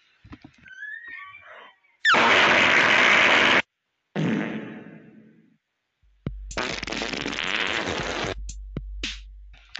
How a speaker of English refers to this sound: All right, guys, that is the end of the fart sounds.